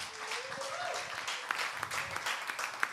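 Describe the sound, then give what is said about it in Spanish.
Steady applause from a crowd for the volunteers who served drinks and food: a dense wash of many overlapping claps with occasional sharper individual hits, sustained at an even loudness throughout with a faint voice briefly audible underneath. “Y quiero darle un fuerte aplauso a todos los voluntarios, voluntarias.”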